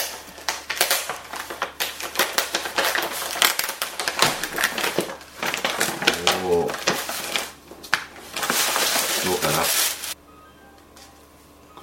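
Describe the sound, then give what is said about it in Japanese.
Loud crinkling and tearing of cup noodle plastic packaging being opened on a rainy morning, a dense run of crackly rustles for about ten seconds, broken by a brief pause and a short murmured voice, then near quiet. “えー、ようやくまずは開封の儀”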